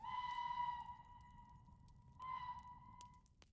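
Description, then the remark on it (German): A train conductor's departure whistle sounds twice at a station platform as the carriage doors shut and the train departs, a long, clear, steady blast that fades, then a shorter second one, over a low rumbling background noise. “Hinter mir schlossen sich mit einem lauten Knall die Türen des Waggons und das Pfeifen ertönte.”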